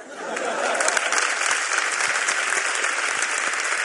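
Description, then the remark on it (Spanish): A crowd applauds steadily, a dense wash of many hands clapping that holds at an even, fairly loud level for the whole stretch without a break. “Este aplauso sí que lo he entendido, ¿no?”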